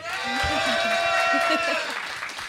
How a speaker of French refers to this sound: Et ce n'est pas des applaudissements en boîte.